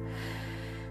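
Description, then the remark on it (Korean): A voice imitates a drawn-out, sleepy yawn of small animals waking from hibernation in a story read aloud: one steady, breathy vocal tone held for about a second, fairly loud, with no words spoken. “작은 동물들이 마당으로 나오더니 졸려서 하품을 했어요.”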